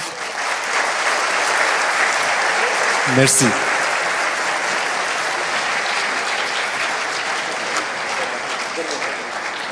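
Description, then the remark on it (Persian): A crowd claps steadily and continuously for the participants at the close of an event, a dense, even wash of applause that holds its loudness throughout. Partway through, a single voice briefly speaks over it. “ما تموم کردیم من تشکر میکنم از همه دوستان پیشا پیش یلای همه رو به همه تبریک میگم لطف کنید تشویق بفرمایید دوستان رو”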